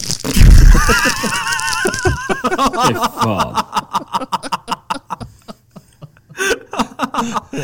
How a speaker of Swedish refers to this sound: Det är ju det ljudet de spelar i högtalarna på Fat Camp för att få alla ungarna att springa tillbaka. Det, är någon som, det är någon som prasslar med godispapper.